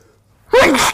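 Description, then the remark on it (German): A single loud sneeze bursts out after a moment of near silence, a sharp explosive blast that cuts off abruptly. “Gesundheit.”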